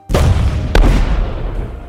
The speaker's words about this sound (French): Deux navires anglais l'attendent. Elle est accueillie à bord par de grandes salves d'artillerie